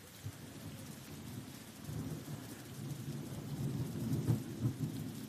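Steady rain falls in a continuous hiss, with a deep rumble underneath that swells gradually and peaks near the end, like thunder. No voices are heard.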